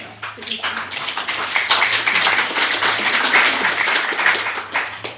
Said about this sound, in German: Sie merken an diesem Beifall, dass wir anerkennen Ihre Haltung, Ihr Verhalten.